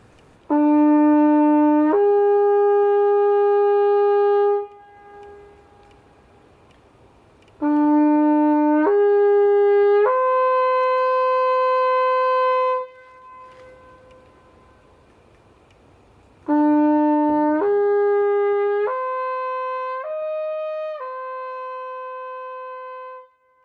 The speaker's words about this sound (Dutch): Die, die, die, die midwinterhoorn leggen ze dan op een put. Dat is een heel droefgeestig geluid.